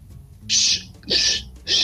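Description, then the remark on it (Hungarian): In a comedy sketch by Hungarian actor and parodist János Gálvölgyi, a person imitates bird calls: three shrill, high-pitched whistling bursts, each about a quarter second long, evenly spaced and loud, with brief quiet gaps between them. “Sipovicsné, ne haragudjon, maga madárhangokat utánoz?”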